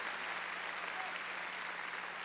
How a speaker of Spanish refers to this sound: A ver, démosle palmas fuertes a Él. Gloria a Dios.